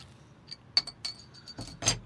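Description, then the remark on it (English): A bottle of Bell's Brewery beer from Comstock, Michigan being opened: several light glassy clinks and metallic taps with a high ringing tone, ending in a brief, sharper burst as the cap comes off. “so we'll go ahead and pause there and uh, allow you to do a little bottle opening.”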